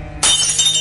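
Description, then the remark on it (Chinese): The glass pane of a wooden door, struck with a long-handled iron kitchen spoon, shatters with a sudden loud crack, then a bright, crackling spray of falling shards that rings on for most of a second, with no voices. “于是，你奋力敲打着木门的玻璃，啪，”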